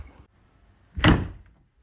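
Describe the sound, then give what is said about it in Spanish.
A single heavy door slams shut as someone leaves the house, a sharp loud thud with a brief rattle that quickly fades into quiet room tone. “Hostia, que se me ha ido ha cerrado la puerta, se ha ido de casa y ha cerrado la puerta de un portazo.”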